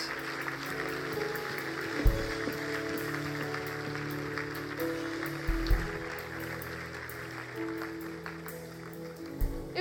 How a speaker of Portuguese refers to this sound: Será que podemos dar uma grande salva de palmas?